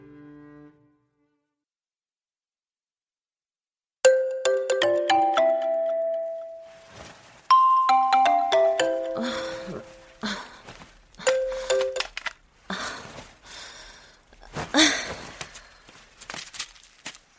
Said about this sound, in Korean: 다음 날 아침 미연은 알람이 울리자 바로 잠에서 깨었다.